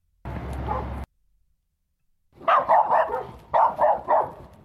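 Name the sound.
dogs barking and whimpering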